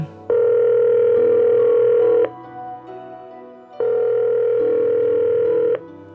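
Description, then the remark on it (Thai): Two long steady electronic ringback tones, each about two seconds, separated by a short pause, with a bright buzzy pitch and low hum underneath. No one speaks. “เขารวบรวมความกล้าอีกรอบ และโทรกลับไปหาซันอีกครั้ง ลองโทรไปอีกทีแล้วกัน”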